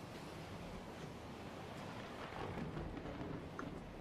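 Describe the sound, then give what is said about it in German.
Continuous rough sea waves churn in a steady, dense roar with no pauses, swelling slightly louder toward the end. No one speaks. “Du spürst ein bisschen, als würdest du in diesem, in diesen Wellen, als würde dich etwas wie, als würde es dich einfangen, als würde dich etwas in einer Kugel von Wasser ein wenig schützen vor, vor diesem aufgewühlten Meer, das um dich herum herrscht”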